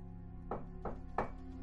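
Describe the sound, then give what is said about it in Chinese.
Three soft knocks on a dormitory door by someone outside, evenly spaced about a third of a second apart, each a short dull thud over a low steady hum, with no voices. “门外的人又敲了敲”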